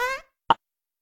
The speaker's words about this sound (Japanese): おなら出ちゃった。間が悪いな、お前は本当に。